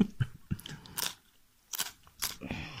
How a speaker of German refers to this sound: Ich esse nur ein Stück Weißkohl.